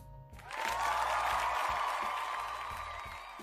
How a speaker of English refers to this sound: You know, that's that's for, you know that's that's claps for both of us. You know what I mean? We we both celebrating right now.